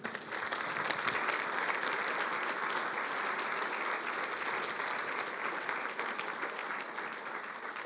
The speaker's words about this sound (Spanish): Puedes dar un fuerte aplauso al Señor.